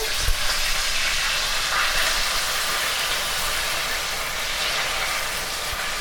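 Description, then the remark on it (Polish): Meat braising in a pot after about half of the water has been poured in, with a steady, even bubbling and sizzle, a dense continuous hiss that stays at a constant moderate level for the whole stretch, with no one talking. “I żeby woda mi nie wykipiała, wlewam najpierw połowę a kiedy już przechodzi w jednostajne bulgotanie, pieczenie się mięsa, jednostajne bulgotanie, nalewamy resztę.”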